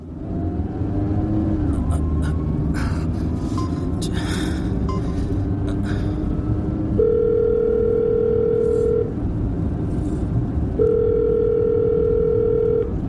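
An unanswered phone call made by a driver from a car: two long, steady ringback tones separated by a pause, sounding over a continuous low engine rumble, with a few brief scuffs early on.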